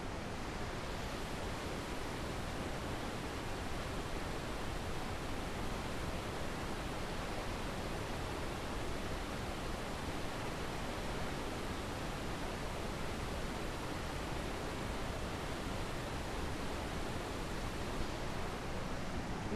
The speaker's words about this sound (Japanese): あーちょっと上の方はこれ見えてたら 97m のですね滝が流れてるはずなんですけれども今ちょっとその姿は見えなくってでも遠くがですね真っ白で逆に何も見えないのでなんか吸い込まれそうなですね不思議な感覚がしますあでもやっぱり下の方のこの滝の勢いっていうのはすごいですねそれでは華厳の滝の音を皆さんお聞きください